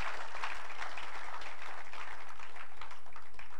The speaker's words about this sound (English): Give God a great hand of applause. Hallelujah.